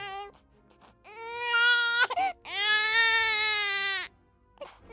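A newborn baby girl cries in two long, loud wails with a brief gasping break between them, clear, followed by a soft whimper at the end; born on 14 July 1868 in the mansion of the Thomas Bell family in England.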